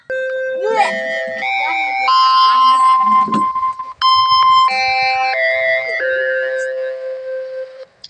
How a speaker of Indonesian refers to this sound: Mohon perhatian. Bel tanda masuk telah berbunyi kepada seluruh siswa untuk segera masuk kelasnya masing-masing. Bapak dan Ibu guru akan segera memasuki kelas.